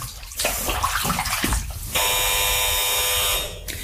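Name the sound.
doorbell ringing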